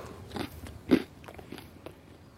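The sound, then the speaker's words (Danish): A crisp bite into crunchy bread served with soft salmon, with one sharp crack followed by a few softer crunching chews. No talking. “Du har helt bløde laks, og så er det sprøde brød.”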